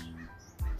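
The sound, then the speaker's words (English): A crow flying over gives a single harsh, nasal caw, fairly loud overhead, followed by a brief low rumble of outdoor noise. “yeah, the crow's really loud.”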